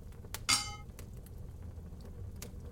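A single bright clink of beer glasses touching in a toast to the last show of 2023, clear with a short ringing tail, over a quiet low background hum with no talking.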